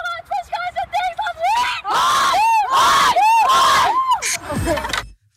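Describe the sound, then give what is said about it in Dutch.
A field hockey team chants a rhythmic team cheer in unison, starting with short repeated calls and building into loud, sweeping shouted syllables before ending in a burst of yelling. “Ja, dit is echt zo'n uh, typische hockeyel.”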